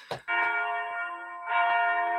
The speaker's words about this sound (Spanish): Y, no, no entendemos, ok, tóxica, tóxico, ya me cayó el 20, ya sonó la campana.